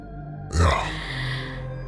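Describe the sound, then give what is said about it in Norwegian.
A single rough, throaty cough bursts out, low and gravelly with a harsh breathy edge, then fades into a quiet steady background hum. “Jo Jeg skjønner, jeg har en sånn her hoste, som du kanskje hører.”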